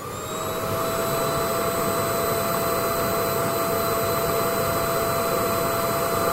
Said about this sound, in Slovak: Toto je tak veľmi jednoduché. Mixer. To bol vysavač.